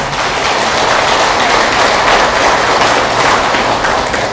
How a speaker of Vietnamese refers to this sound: chúng ta hãy dành một tràng vỗ tay để nỗ lực làm công việc đó